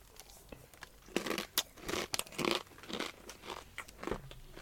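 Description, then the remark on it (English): Loud crunching of dry snacks (smoky barbecue flavoured peas, crunchy corn chips and chili corn from a Graze snack pack) being chewed, a run of sharp crackly bites and grinding chews in an uneven rhythm, with no talking. “i am snacking down on something i have got some smoky barbecue graze crunch this is smoky barbecue flavoured peas, crunchy corn chips, and chili corn.”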